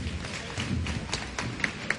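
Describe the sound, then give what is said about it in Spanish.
A street crowd in the Plaza de la Alfalfa applauds during a procession, many hands clapping in a dense, steady patter at moderate loudness, with a few sharper individual claps standing out near the end. “Y de nuevo aplausos ahora en la Plaza de la Alfalfa.”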